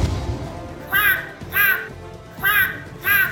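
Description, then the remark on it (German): Seagulls cry out four times in two quick pairs, loud, harsh, squawking calls standing clearly above a faint background, with no one speaking. “Die Höhle der Möwen.”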